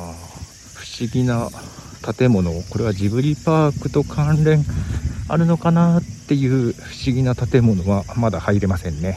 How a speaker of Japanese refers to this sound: セミがまだ鳴いてますよね昨日かな一昨日かな収録した時には夜ね収録した時にはあ秋の虫かなっていう音が聞こえてたんですが昼間はまだセミが鳴いていますね